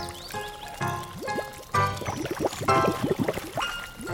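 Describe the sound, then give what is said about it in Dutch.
Boiling water bubbles and gurgles in quick, irregular pops that build and continue for several seconds, moderately loud, with a faint tonal hum in the background. “Maar pas op voor het kokend water, hè.”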